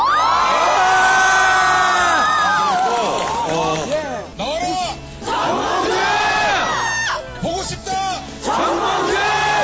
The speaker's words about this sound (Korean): 이 여러분들 외친 소리 다 들었어요.